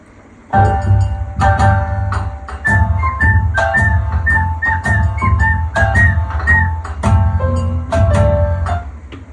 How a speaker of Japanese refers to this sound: またメロディーチェンジしますか。ピッチっていうか、シフ、あの、ピッチか。うん。ピッチを変えて、オカリナの、うん。合わせました。